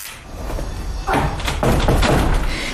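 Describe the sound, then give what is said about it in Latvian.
A door in a black wooden fence thuds shut at a memorial museum on Ķīpsala, at the end of Mazā Balasta dambis street, as someone passes into a dim wooden tunnel: a heavy knock followed by a second rattling bang as it settles, over a steady outdoor background hiss. “Caur durvīm sētā ienirstu koka tuneļa pustumsā, ko caur dēļu spraugām lauž dienas gaisma.”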